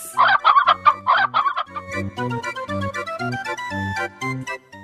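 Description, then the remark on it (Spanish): A chicken clucks in several quick, bright bursts at the start. After a couple of seconds a bouncy, rhythmic tune with a steady bass line takes over. No one speaks. “Como conozco el hambre del pueblo, a los fieles votantes que votan por este servidor, les vamos a regalar una gallina.”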